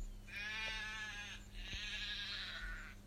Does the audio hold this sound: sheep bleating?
yes